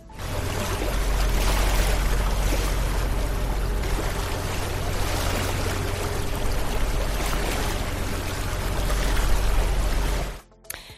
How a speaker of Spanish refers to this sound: Así suena el mar.